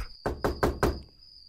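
Four firm, evenly spaced knocks on the wooden door of a small farmhouse as the sun begins to set, fairly loud, with a faint steady high-pitched hum underneath and no one talking.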